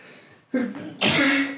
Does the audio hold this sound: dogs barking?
no